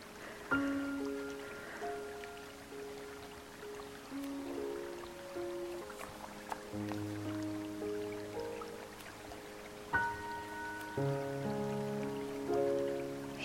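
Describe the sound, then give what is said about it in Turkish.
Steady, soft rain hisses continuously beneath slow, gentle sustained music with drawn-out tones, the patter even and moderately quiet throughout, with no voices. “yağmurların tüm ateşi sevgiyle söndürdüğünü hissedin.”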